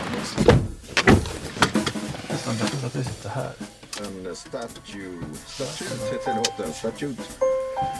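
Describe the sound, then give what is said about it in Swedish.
An American car's seatbelt reminder chime sounds near the end as the car is switched on, a couple of short, clear electronic tones repeating over ongoing conversation and engine noise. “Det här är då en eh, amerikansk bil, vet vi på grund av att det låter bältespåminnare när man sätter på den.”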